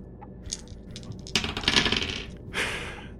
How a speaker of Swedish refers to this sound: Ja, varsågod och slå ett sikte. Du kan ta fyra tärningar.